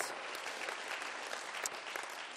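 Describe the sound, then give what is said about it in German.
An audience claps steadily throughout, giving God a round of applause: a dense, even wash of many hands with no voices standing out, holding a fairly constant level for the whole stretch. “Sollen wir Gott mal einen großen Applaus geben?”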